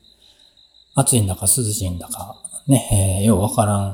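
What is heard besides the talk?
crickets chirping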